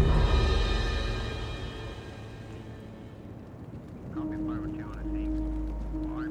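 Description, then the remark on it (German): A dense hiss of rain fills the first few seconds, then softens and gives way to a steady low hum with faint, scattered voices in the background, as someone steps out of the rain into the dry main tent of a production's base camp. “tritt vom Regen in das trockene Hauptzelt im Basislager der Produktion.”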